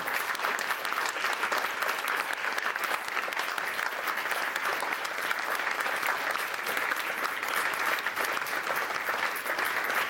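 Steady applause from an audience for the event team fills the whole stretch, a dense, continuous patter of many hands clapping at an even level without a break.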